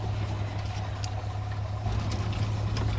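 Brian Barkley's 4x4 vehicle, parked in front of the guesthouse, idles with a steady, low rumbling drone that holds evenly for the whole stretch, with no voices and only faint background texture above it.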